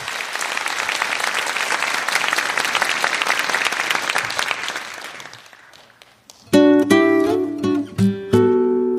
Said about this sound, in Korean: 자, 큰 박수 부탁드리겠습니다.